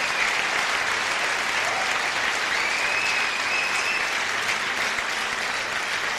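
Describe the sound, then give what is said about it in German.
Loud, sustained applause from a conference audience welcoming a speaker onto the stage, a dense wash of many hands clapping steadily for several seconds with no speech over it, holding an even level throughout. “Gebt ihm einmal einen riesigen Applaus.”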